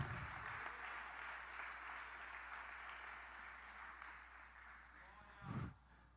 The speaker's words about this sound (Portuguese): Pode aplaudir que é para o rei.